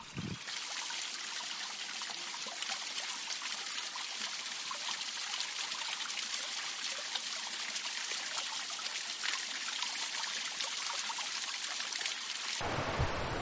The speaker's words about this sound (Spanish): Wild Track, orilla del río